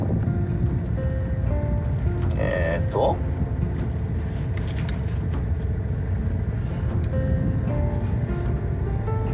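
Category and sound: ambience, road traffic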